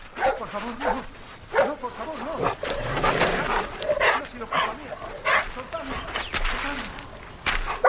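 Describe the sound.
A dog that has escaped from its keeper barks repeatedly and excitedly, with some higher yips mixed in. The barking is fairly loud, over a busy backdrop of voices and commotion.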